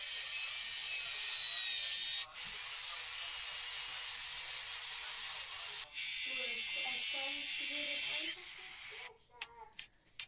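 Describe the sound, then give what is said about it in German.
An angle grinder cuts through a marked-out piece of metal, screaming in a loud, steady high-pitched whine, broken by two brief dips, then cuts off near the end. A voice is faintly heard underneath toward the finish. “Jetzt zeichnet er da so an, schneidet, flext das.”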